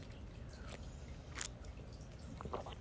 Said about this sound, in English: I'm taking a sip of my tea. Don't mind. Don't mind me.